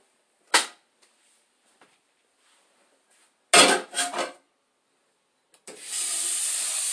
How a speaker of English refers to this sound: Yeah, I'm running water. Yeah, I'm in my kitchen, y'all.